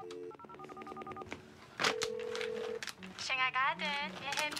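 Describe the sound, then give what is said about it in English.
A quick run of telephone keypad dialing tones, about a dozen short beeps in fast succession, as someone dials to order Chinese takeout for delivery, followed by a steady hum-like tone and then people talking. “Miranda calls for Chinese food to be delivered so often that the person answering the phone could finish her sentences”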